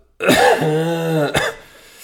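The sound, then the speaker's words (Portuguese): A loud cough from one person after a hard night: a strained, voiced rasp that ends in a single sharp burst, then quiet. “E esta tosse é porque hoje foi...”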